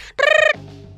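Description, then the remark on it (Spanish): A voice imitates a telephone ringing with one loud, steady, buzzy tone lasting about a third of a second, then a lower, quieter hum trailing off. “No sé si vamos a tener esto, el sonido del teléfono.”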